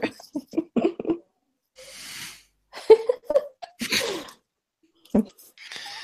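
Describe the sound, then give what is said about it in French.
A woman's habitual coughing fit: a string of sharp, harsh bursts with breathy, hissing inhalations between them, coming in an uneven rhythm and fairly loud, with no speech over it. “J'ai eu euh, ma petite quinte habituelle, donc euh, voilà.”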